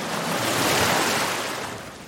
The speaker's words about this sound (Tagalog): Habang lumalalim na ang natatahak ko, ay medyo malakas na rin ang alon na tumatama sa aking bangka.